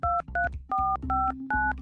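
A quick run of five telephone keypad tones, each a short dual-pitched beep in steady succession, clear with a low background hum underneath.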